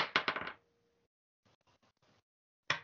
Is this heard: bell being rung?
no